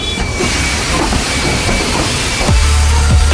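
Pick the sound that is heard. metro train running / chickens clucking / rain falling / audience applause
metro train running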